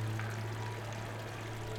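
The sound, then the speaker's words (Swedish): A water tap left running somewhere in an empty house runs steadily, a continuous even rush of water with a low hum beneath it, fairly quiet and unchanging throughout, with no voices. “Men det står en kran och rinner någonstans.”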